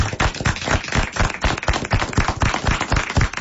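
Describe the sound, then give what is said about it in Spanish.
An audience applauds steadily for several seconds, a dense, crackling patter of many hands clapping at an even, fairly loud level with no voices over it. “Vamos a con aplauso.”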